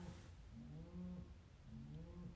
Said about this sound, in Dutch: De koeien zijn bezig. Ik zit in een camper. Hoort je dat? Kunt je dat horen?